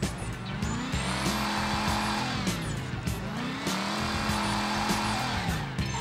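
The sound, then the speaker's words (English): A car engine roars and revs continuously during a street race, its pitch rising and falling through gear shifts, with tires squealing over it. Loud, with no talking. “Let's go and start a street race.”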